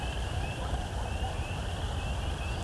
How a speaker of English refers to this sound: Oh, hearing a very distant coyote song.